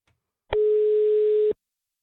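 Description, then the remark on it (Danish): A single steady ringback tone from an outgoing phone call, one clean one-second beep at a moderate level, with silence before and after and no voices. “Jeg skrev lige til dig kort, om du var klar på sådan en lille sjovt eksperiment og så ringede vi til dig.”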